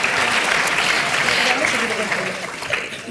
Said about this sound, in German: Darf ich? Gerne Applaus.